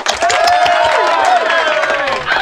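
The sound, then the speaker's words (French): An audience applauding loudly and steadily for a couple of seconds, the dense clapping mixed with whoops and cheering voices throughout. “Vous pouvez applaudir maintenant.”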